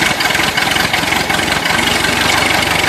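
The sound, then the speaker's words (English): A tractor engine idles loudly, a steady low rumble with a rapid, even chugging pulse that holds constant throughout without any voices. “Fire up the tractor! Time to harvest another Kirby kernel!”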